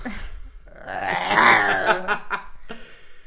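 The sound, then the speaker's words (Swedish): A person imitates a lion's roar with a single drawn-out, growling vocal roar that swells and fades over about two seconds, fairly loud, followed by a few short breathy sounds. “Vill du höra en lejon?”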